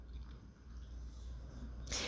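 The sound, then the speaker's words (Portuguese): A sudden, sharp, loud sneeze bursts out at the very end, following a stretch of low, steady background hum with no talking. “Saúde, meu filho.”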